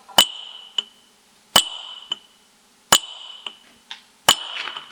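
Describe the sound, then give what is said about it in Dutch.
A hand hammer strikes a metal chisel in a steady rhythm: four sharp, ringing clangs about a second and a half apart, each followed by a lighter tap. The blows are loud, with no talking. “Nou zal ik het even met hamer en bijtel ja, Dus.”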